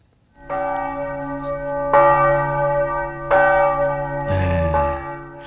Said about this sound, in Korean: 멀리서 들으면 참 포근한 소리죠. 종소리입니다. 종소리.